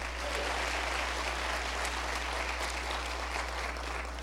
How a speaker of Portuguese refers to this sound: Aplauda o Senhor mais forte que você puder, se você crê nisso. Aleluia!